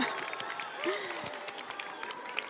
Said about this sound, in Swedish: Publikens jubel! Woho!